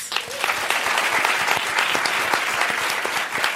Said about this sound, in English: So I just want to have another round of applause